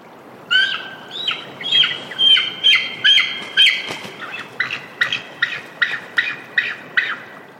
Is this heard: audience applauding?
no